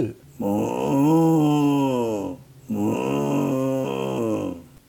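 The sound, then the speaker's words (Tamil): A person imitates a cow's moo twice, two long, drawn-out lowing calls of a cow in its cowshed, separated by a short pause, with no other speech. “அவனுடைய பசு மாட்டுத் தொழுவத்திலிருந்து கத்திய சத்தம் இவன் காதில் விழுந்தது அப்பொழுதுதான் அவனுக்கு ஞாபகம் வந்தது காலையிலிருந்து பசுவுக்கு புல்லோ தண்ணீரோ கொடுக்கவில்லை என்று”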